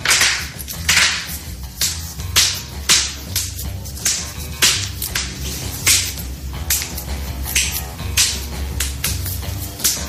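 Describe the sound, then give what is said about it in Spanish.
A woman cracks her knuckles again and again, a rapid run of sharp, dry pops in irregular bursts, some clustered together, loud over a low steady background hum. “Es capaz de hacer sonar todos y cada uno de sus nudillos, en conjunto o de uno en uno, como ella quiera.”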